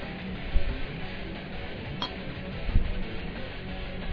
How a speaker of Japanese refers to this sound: はい、では最後の乾杯をしたいと思います。